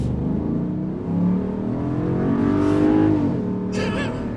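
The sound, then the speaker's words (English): An SUV engine accelerates steadily while towing a 7,000-pound trailer, its low droning hum rising in pitch as it revs harder, fairly loud, with a brief hiss near the end and no one talking. “It's accelerating with 7,000 pounds behind it, and you don't even know that uh, that it's there.”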